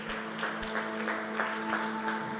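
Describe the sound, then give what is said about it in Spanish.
An audience at a church conference claps steadily as applause to God, a dense, continuous patter of many hands at moderate loudness, with a faint sustained musical tone humming underneath throughout. “Vamos a dar otro aplauso a Dios por la presencia que estamos disfrutando en este momento.”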